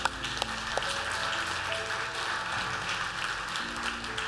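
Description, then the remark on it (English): A crowd claps and cheers steadily for several seconds, a dense, continuous wash of hand claps with a few raised voices mixed in, holding an even loudness throughout. “Can we give them a great cheer?”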